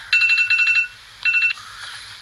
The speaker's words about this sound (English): excuse me guys that's my timer to close my window